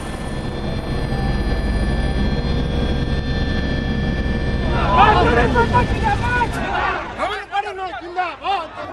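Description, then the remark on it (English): A helicopter that has flown almost 350 kilometers lands in the Kalahandi Lok Sabha constituency; its loud, steady engine roar and turbine whine fill the first several seconds, then wind down as a crowd of voices rises and takes over. “We have traveled almost 350 kilometers by helicopter to this Kalahandi Lok Sabha constituency where Naveen Patnaik has just landed”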